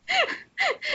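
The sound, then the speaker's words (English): A dog makes three short, whiny vocal noises in quick succession, each sliding downward in pitch, fairly loud, with no talking over them. “sorry my dog”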